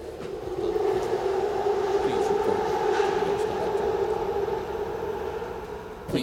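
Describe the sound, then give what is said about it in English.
A New York City subway train, the G train running between Brooklyn and Queens, rumbles steadily with a sustained motor whine and broad roar throughout, fairly loud, briefly easing before a final clunk at the end. “You know the ghost train in New York City?”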